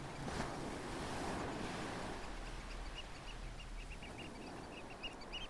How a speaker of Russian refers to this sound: Справа нежно шумит море, наслаждаясь покоем и ночной тишиной после активного дня.